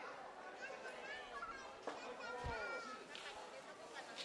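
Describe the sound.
Lively outdoor hubbub of children playing at festival game booths, including ring toss and an arrow-throwing game at a booth labeled Korea, with overlapping high-pitched kids' voices and chatter, a steady crowd murmur underneath and a brief thud partway through.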